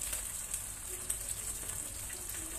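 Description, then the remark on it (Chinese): A chicken cutlet and king oyster mushrooms pan-fry in hot oil, a steady, dense hiss sprinkled with small crackles and pops at an even loudness throughout, with no voices. “所以它在煎鸡排的同时呢，我们就来就来把杏鲍菇呢撕成一条一条的。然后等一下呢，我们放到那个旁边，因为旁边有油，我们就用旁边的油呢来吸 来煎那个杏鲍菇，所以它可以同时间进行。”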